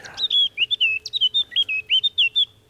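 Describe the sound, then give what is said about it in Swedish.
A Eurasian blackcap sings a quick, fluty run of clear whistled notes, about a dozen in under three seconds, fairly loud with no voices. “Förmodligen Svarthetta.”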